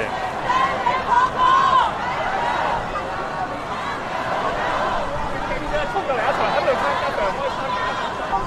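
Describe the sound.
A dense street crowd chants slogans, many voices merging into a steady, loud roar with a few raised voices standing out above the din, continuous for the whole stretch.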